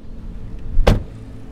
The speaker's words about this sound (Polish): Wycieraczki działają, tak, wszystko jest ok, tak żeby było korekt.